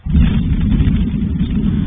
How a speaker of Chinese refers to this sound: 天空突然出现爆炸声，日本关东地区十五号清晨六点五十五分左右，天文研究员藤井大地从自家架设的固定式摄影机拍到这个画面，火球从画面右上方快速划过天际，从神奈川向长野县方向移动。